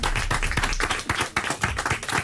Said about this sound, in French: Nous avons également à vos côtés, et là je demande deux fois plus d'applaudissements bien sûr, celle qui est votre chérie dans le film Le Nouveau Jouet dont on va parler pendant une heure et demie, Alice Belaïdi.